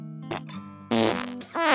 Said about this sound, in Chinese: 哟，原来宝宝这么小就会放屁了，真有意思。